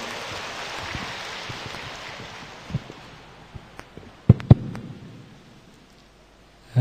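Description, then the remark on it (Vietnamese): A crowd applauds in a dense, rain-like patter that slowly thins and fades, ending with a few scattered final claps before silence. No one speaks. The applause is at a Buddhist assembly, inviting a monk to share his talk. “xin vị dành tràng tay để lắng nghe sự chia sẻ của đại đức thiện an”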